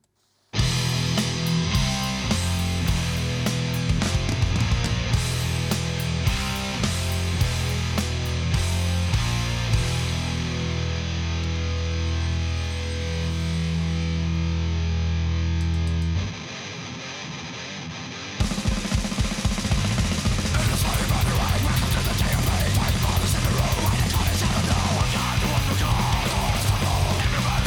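A Swedish grindcore metal track plays loud and dense, with heavy distorted riffing, a brief thinner break midway, then a frantic, chaotic blast of noise through the end.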